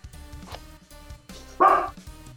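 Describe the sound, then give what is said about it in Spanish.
A roar sound effect: low, rumbling growls lead into a single loud, harsh roar near the end that quickly fades away, with no talking. “Entonces vamos a llevar un contador de los rugidos de …”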